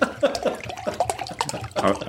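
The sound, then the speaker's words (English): Water sloshes and gurgles inside a plastic water bottle as someone opens it for another person, with a quick cluster of crinkling handling noises as it's opened and moved about. “I'm going to open that for you.”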